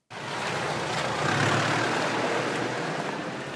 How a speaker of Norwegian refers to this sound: Regn overtok for store mengder snø, som ble kjørt bort i lastebiler.